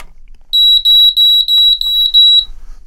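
A smoke alarm, set off by pressing its test button, shrieks in a rapid series of loud, piercing high-pitched beeps, grouped in quick pairs and triplets for about two seconds, then stops. No one speaks.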